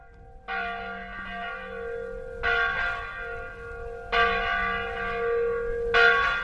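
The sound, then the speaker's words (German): A church bell rings out through a village in slow, repeated strikes, four in a row at steady intervals, each tone lingering and overlapping the next with a rich, resonant hum, calling Catholic worshippers to Mass 30 minutes before it begins. “Das Läuten der Kirchenglocke hallt durch das Dorf und ruft die katholischen Gläubigen zum Gottesdienst.”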